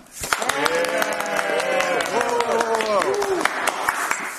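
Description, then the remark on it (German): A poetry slam audience claps steadily for about four seconds in an applause vote for the first performer, the dense crackle of many hands mixed with loud whoops and cheering voices that rise and fall through the middle before the applause carries on. “da machen wir jetzt heute die Applausabstimmung.”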